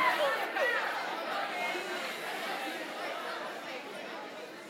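A crowd of people chattering at once, a steady dense babble of overlapping voices with no single speaker standing out, moderately loud and continuous throughout.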